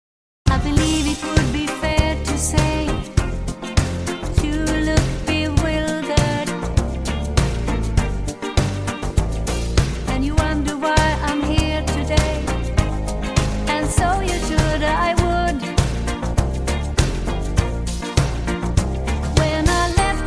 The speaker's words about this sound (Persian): یه تیکه از آهنگ … رو گوش کنین که بریم بعدی